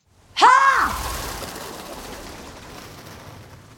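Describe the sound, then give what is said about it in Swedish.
A flock of birds suddenly takes off from a tree: a sharp call rings out, then a loud rush of flapping wings gradually fades away. “och så klipp till hemstaden där ett gäng fåglar lyfter från ett träd.”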